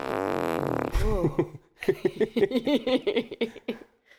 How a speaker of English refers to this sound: was obviously a fart. An explosive fart.